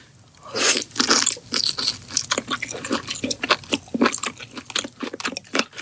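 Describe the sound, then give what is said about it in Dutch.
Crunchy chewing of food in a mukbang eating video, a steady run of sharp, bright crunches and bites repeating quickly for several seconds, loud and wet-sounding, with no talking. “Eh, in Korea ontstaan genre van jonge meisjes meestal die eten voor de camera.”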